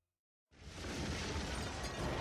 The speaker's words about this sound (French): à nouveau, comme chaque matin, l'aube se lève sur la ville de Jiankang, mais à la place du bruit des marchands de rue, ce sont des explosions qui retentissent. Alors que l'empereur Wen flâne dans la cour, ces bruits effrayants arrivent à ses oreilles